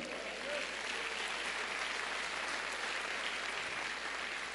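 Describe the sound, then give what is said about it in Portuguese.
An audience applauds the Lord steadily, a dense, continuous wash of many hands clapping at an even loudness throughout, with no clear individual voices standing out. “Então dá um glória a Deus e aplauda o Senhor aí.”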